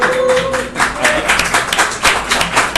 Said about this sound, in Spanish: De hecho, bueno, sí, quisiera aprovechar para saludar a la gente que nos este, acompaña en la calle. Un aplauso, por favor, para que nos escuchen en la casa.